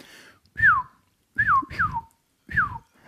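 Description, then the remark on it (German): Someone whistles an imitation of a golden oriole's call: four short, fluty notes that each slide downward in pitch, with a brief pause before the last one. “Ähm, aber der Pirol sieht tatsächlich auch etwas exotisch aus. Also es ist so ein gelber Vogel,”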